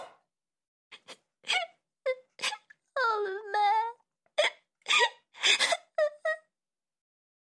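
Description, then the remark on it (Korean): A voice performs a girl's sobbing, with short hiccuping gasps and a drawn-out, quavering whimper in the middle, crying out a word between the breaths; a daughter lying trembling on a barn floor, sobbing and calling out. “아내는 멍하니 서 있다가 딸이 흐느끼며”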